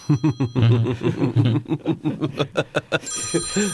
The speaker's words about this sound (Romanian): Da. Da, vă sună telefonul.